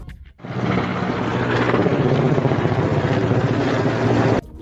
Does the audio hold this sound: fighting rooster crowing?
no